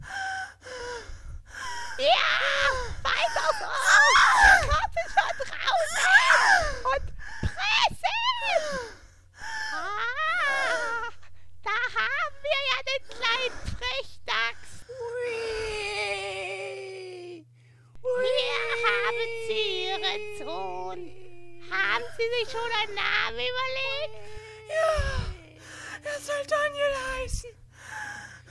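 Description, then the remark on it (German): Strained gasps and loud groaning from a woman in labor fill the first half, then give way to the high, wavering wails of a newborn baby crying. “Dir ist schon klar, wessen Geburt du da gerade beigewohnt hast.”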